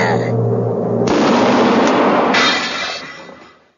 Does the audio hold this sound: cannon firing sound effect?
yes